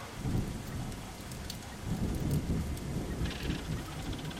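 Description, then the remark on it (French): Heavy rain pours steadily indoors through a roof window that has burst, a dense continuous patter and splashing with a deep low rumble underneath, fairly loud, with no voices. “Ah ben, attendez, puisque je vous le dis, je, je vois bien, je suis devant, ça pleut à l'intérieur là.”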